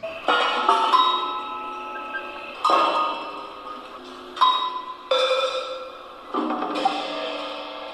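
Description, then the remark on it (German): Clanging metallic strikes from Jean Tangley's kinetic sculpture machines at an art exhibition about hearing, a hammer banging a tin bucket in irregular bursts, each hit ringing bright and rattling before fading, with a steady mechanical clatter between blows. “Jean Tangleys Maschinen sorgen für Dauerbeschallung und für gelegentliches Zusammenzucken, wenn mal wieder ein Hammer auf einen Blecheimer trifft”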